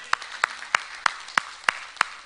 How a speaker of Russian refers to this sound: Ого! Я готов сказать аминь и дать аплодисменты Гималеилу.